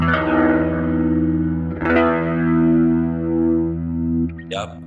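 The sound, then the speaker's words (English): A growling organ tone swirls through a rotary Leslie speaker effect in a studio, held loud for several seconds with a wobbling, chorus-like shimmer, then fading near the end as a brief voice-like sound cuts in. “Um, but this is this this growling growling sound.”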